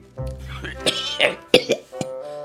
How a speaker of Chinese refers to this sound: 怪老头一边咳嗽一边说：